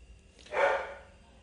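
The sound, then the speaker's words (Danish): A single dog bark rings out, a short, full-bodied woof from an impatient dog patient at a veterinary practice, fading quickly against a quiet background. “Det er en af patienterne, der dør? Det er en utålmodig patient, ja.”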